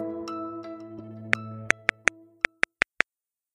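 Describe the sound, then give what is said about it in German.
Eight sharp, clear ticks mark the time gaps between female lugers crossing the finish line in Olympic luge, arriving at uneven intervals, some bunched together, others spaced apart, over a sustained low tone that fades out, leaving the last ticks alone. “Das war kein Störgeräusch, das waren die Abstände des Zieleinlaufs der Rodlerinnen. Wir haben das mal versucht, für Sie hörbar zu machen.”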